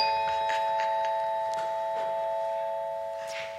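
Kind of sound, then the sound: signal or alarm, chime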